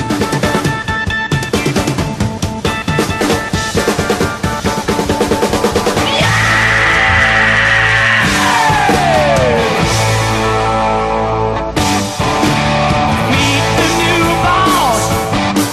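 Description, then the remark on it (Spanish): A loud rock track by a band builds with pounding drums and guitar. The band's male singer then lets out a long, sustained high scream that holds for several seconds before sliding downward over the band. “Parece que le haya dado literalmente la cabeza o se haya dado el mismo con el, micrófono, porque mirad cómo grita”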